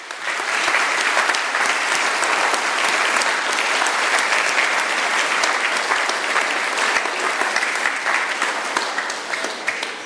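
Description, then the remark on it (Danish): An audience claps steadily for about ten seconds in tribute to relatives caring for sick, dying or deployed loved ones at Christmas, a dense, loud wash of many hands with no pauses and no voices rising above it. “Værsgo lige at give et bifald, vi gør det.”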